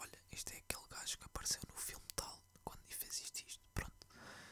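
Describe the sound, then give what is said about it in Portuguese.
A voice whispers and murmurs quietly, in breathy, hushed bursts of unvoiced syllables lasting a few seconds, with soft sibilant hisses and no clear spoken words. “Eu estava literalmente a murmurar assim, tipo.”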